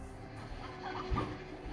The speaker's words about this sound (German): Jetzt sammeln wir hier nämlich alle, kurz alle Hühner ein.